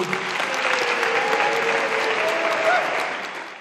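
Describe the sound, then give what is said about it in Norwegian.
A right-leaning assembly at a political debate in Israel applauds party leader Bennett steadily. Many hands clap at once in a dense wash, sustained at an even loud level for several seconds before tapering slightly at the end. “Bennett er den eneste partilederen som stiller på denne debatten, og han høster applaus fra den høyredominerte forsamlingen.”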